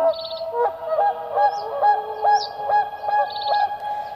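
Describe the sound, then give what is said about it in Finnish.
Whooper swans call in a series of loud, trumpeting honks, several birds overlapping in an irregular rhythm, clear with no talking. “Vaikka laulujoutsen on Suomen kansallislintu, alkaa joutsenten myyttinen luonne unohtua.”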